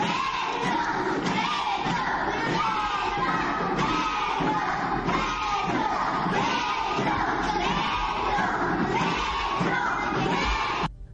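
A group of young children, about 4 to 5 years old and seated at school desks, shout together in loud unison for candidate Gustavo Petro of the Pacto Histórico, chanting rhythmically while thumping on the desks in a steady beat, the noisy din lasting the whole stretch.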